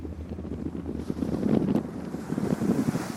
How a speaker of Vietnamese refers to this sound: Càng đi ra đất liền, tiếng sóng vỗ mạnh hơn, tiếng nói cười ít dần.